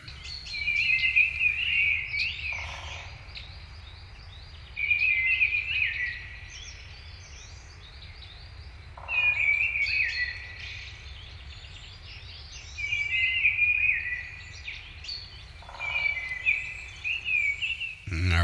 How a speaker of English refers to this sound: Uh, you may have heard that tapping sound. That was a woodpecker in the background, but the bird that you hear up front is the mistle thrush.